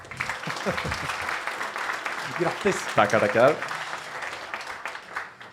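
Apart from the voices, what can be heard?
applause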